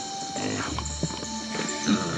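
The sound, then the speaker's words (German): Several light hoofed footsteps patter and clop unevenly as pigs trot out of a small stall near some huts, with a few louder knocks over a steady humming background. “In der Nähe der Hütten befand sich ein kleiner Stall, anscheinend voller Schweine.”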